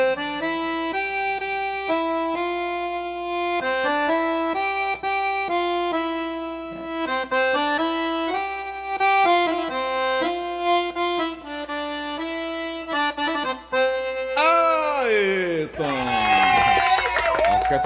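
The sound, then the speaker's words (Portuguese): An accordion plays a simple folk melody in sustained, reedy notes that step up and down steadily, ending with a brief sliding flourish and a noisy burst. “mas só de eu tocar agora, parece que a sanfona ela fica com um som mais, hum.”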